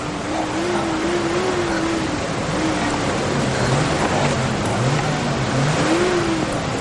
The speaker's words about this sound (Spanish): ¿Qué? Parece un coche.